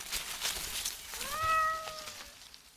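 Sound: cat meowing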